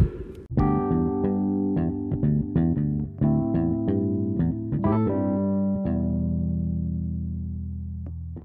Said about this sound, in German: Minimalismus und so ist back. Minimalismus reloaded. Hit the new intro.